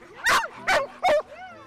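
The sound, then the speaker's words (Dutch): Chubby, a four-year-old black-and-white border collie training in freestyle dog frisbee on a grass field by the Kralingse Plas in Rotterdam, lets out three sharp, high-pitched barks in quick succession, loud, followed by a brief, softer whining yip as the last bark trails off. “En dit is Chubby, een zwart-witte border collie.”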